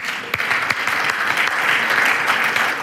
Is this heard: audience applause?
yes